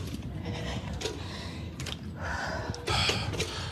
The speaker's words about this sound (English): She's breathing hard, huh?